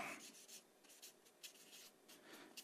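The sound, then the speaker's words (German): Quiet scratching of a pen moving across paper in short irregular strokes, with bright hissy bursts as letters are written, and no voices. “Also Martin L. schreibe ich mal.”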